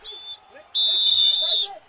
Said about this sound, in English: They both both umpires blew the whistle then